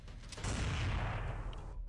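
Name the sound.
gunshot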